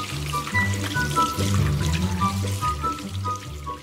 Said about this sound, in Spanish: Primero, lavándote las manos con agua y jabón mientras cantas una canción.